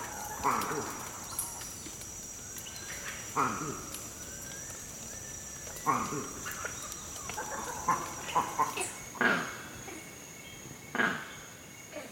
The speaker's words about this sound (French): Là, on vient d'entendre le crack. Le crack, c'est un autre cri d'alarme, mais qui, lui, est émis lorsque le mâle repère un léopard.